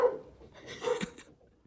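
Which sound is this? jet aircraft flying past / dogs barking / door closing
dogs barking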